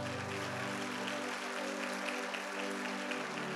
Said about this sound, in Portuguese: Vamos aplaudir ao Senhor bem forte.